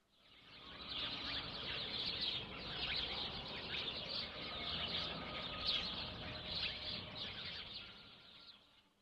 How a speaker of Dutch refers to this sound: Het geluid van vogels.